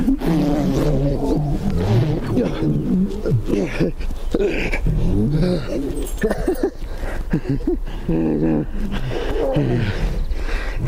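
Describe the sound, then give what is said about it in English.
Lions, on videotape from Israel, roar and growl in loud, overlapping bursts that continue almost without pause, several deep rumbling calls rising and falling. “As a matter of fact, we actually have videotape of the angel of the Lord speaking to the lions.”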